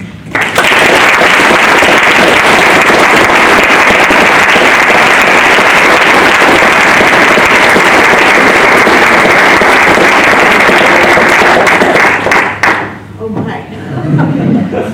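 Sustained, loud applause from a large audience welcoming lecturer Heather Thompson, the 2019-2020 Pitt Professor of American History and Institutions, fills about twelve seconds, a dense wash of many hands clapping, then fades quickly into quieter surroundings with faint movement.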